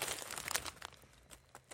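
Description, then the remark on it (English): A bag of Heartland Extra Crunch salt and vinegar chips crinkles and rustles as it is handled, a steady run of crisp, crackly bursts that are loudest in the first half and taper toward the end. “I gotta say, it's a classic chip flavor. Extra crunchy.”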